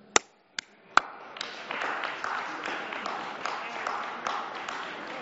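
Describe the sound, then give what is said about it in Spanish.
Three sharp, separate claps ring out, then a crowd breaks into steady, dense applause for the news media that keeps going at an even level, with the odd louder clap standing out. “Muchas gracias a los medios de comunicación. Un aplauso.”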